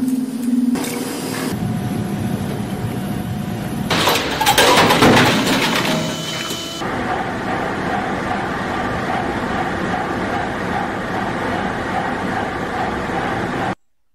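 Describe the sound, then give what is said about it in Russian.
Loud, continuous machinery in a factory making extension cords clatters and whirs, with bursts of hissing and mechanical rattling early on, then settles into a steady, dense industrial drone. No one speaks. “Производственное порно, завод по изготовлению удлинителей.”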